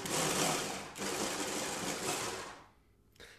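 A blender without a reverse function whirs loudly as it re-chops a piece the blade missed, a dense rattling motor roar that dips briefly, resumes, then winds down near the end before a short final burst.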